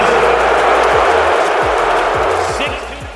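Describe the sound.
A packed arena crowd in Philadelphia boos Ben Simmons, back for his first game there, loudly and steadily as he is introduced, a dense roar of voices filling the space, with a few dull low thumps underneath before the noise eases slightly at the end.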